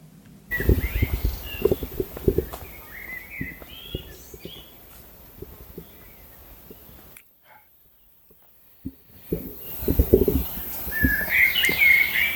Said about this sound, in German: zum Ausklingen dieser Folge, hört ihr jetzt, wie sich der Wald vor Verdun anhört. Ohne Mist, das ist eine Aufnahme, wie sich der Wald anhört vor Verdun.